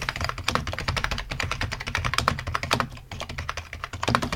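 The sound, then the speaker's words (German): Rapid, steady typing on a Cherry G83 office computer keyboard, a rubber-dome keyboard with standard block keys, a dense run of crisp key clacks with a brief pause near the end, no voices present. “Das ist beispielsweise die Cherry G83. Das ist so eine typische Bü Bürotastatur. Hier, mal hören.”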